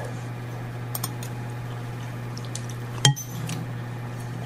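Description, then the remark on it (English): A ceramic pasta bowl and a glass of red wine clink in a dining room: a couple of faint taps early on, then one sharp clink with a brief ring, all over a steady low electrical hum and no talking. “I've got a bowl of pasta here and a glass of that red wine that I used to uh, that I used as one of the ingredients.”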